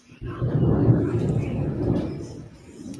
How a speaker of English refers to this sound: Oh my God, is that thunder? Yes. Um, I've actually been very grateful because it's been sunny for a couple days. So now that it's about to storm again, it's okay.